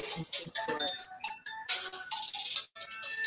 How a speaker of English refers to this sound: And now somebody's phone want to go off.